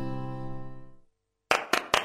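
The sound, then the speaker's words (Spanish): A fading musical tone gives way to a brief silence, then three sharp hand claps in quick succession, loud and crisp, with no one speaking. “Ahora que tengo tu atención, quiero contarte que Casa Inteligente no es la que prende las luces cuando aplaudís”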